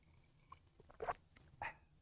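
Two short, soft slurps from someone sipping coffee, separated by a brief pause, with faint mouth clicks and no talking.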